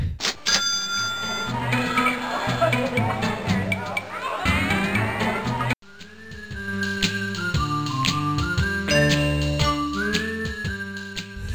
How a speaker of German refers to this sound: Ja, und das sind nicht die einzigen Gemeinsamkeiten, nämlich genau wie Theme Park hat Constructor auch die Angewohnheit, immer wieder Sound-Samples von vorne zu beginnen und die auch ganz gezielt und genauso abgehackt wieder zu beenden.